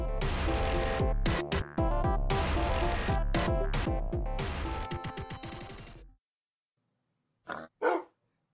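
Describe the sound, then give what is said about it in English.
Loud, dense music plays for several seconds and fades out. After a short silence, a dog lets out two quick barks. “Oink woof. Oink woof indeed.”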